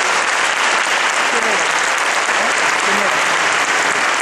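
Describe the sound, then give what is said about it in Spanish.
Loud, sustained audience applause for a group of young people fills the whole stretch, a dense steady wash of many hands clapping with no breaks, with faint murmurs of voices beneath it. “no se merecen los aplausos a esos jóvenes por pensar en una idea grande.”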